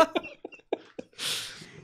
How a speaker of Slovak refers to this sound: Sorry, to. Mal som si kýchnuť.